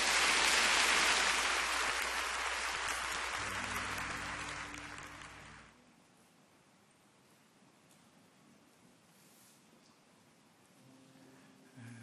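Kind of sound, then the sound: crowd, audience applauding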